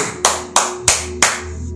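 Four sharp hand claps land in an even, steady rhythm, like one person applauding briefly, over a faint low background hum with no voices.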